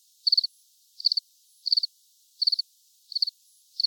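A lone cricket chirps steadily, each call a quick trill of three or four pulses repeating about every 0.7 seconds, high-pitched and clear against silence.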